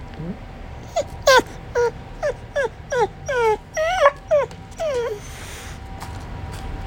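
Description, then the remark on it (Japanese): A dog that has just woken up whines and vocalizes toward a smartphone in a rapid run of about ten short, high, pitch-bending whimpers and yips, some sliding downward, over a low steady background hum. “なんでいいよ喋んのかお前スマホに向かって喋んのか”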